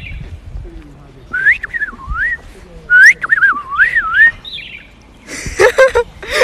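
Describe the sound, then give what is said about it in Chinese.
A person whistles an imitation of a bird call: several quick, high, warbling phrases that swoop up and down in pitch, followed by a short burst of noisy, breathy sound at the end. “好美， 我可以学这个鸟声，拿口哨什么。”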